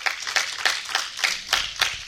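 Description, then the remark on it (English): A church audience claps hands together in praise in a steady, fairly quick rhythm, the sharp claps blending into a continuous patter of applause with no talking. “Give God a hand clap of praise for her.”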